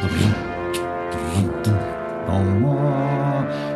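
Dramatic prairie-style brass horns hold sustained, swelling notes that step upward in pitch, with light, crisp ticks from a snare drum scattered underneath. The music is fairly loud and steady throughout.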